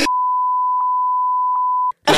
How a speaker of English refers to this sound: oh shit! I just I just made a comment that I wasn't supposed. To, can we bleep that?